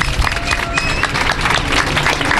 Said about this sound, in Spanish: Aplauso, por favor, es espectacular.